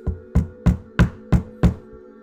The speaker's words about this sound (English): The woman knocked on our back door and then paused. Moments later, the knocks were even louder this time.